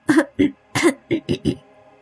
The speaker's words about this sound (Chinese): 我赶紧用咳嗽掩盖过去。我继续咳嗽。不好意思，这几天有点咳嗽。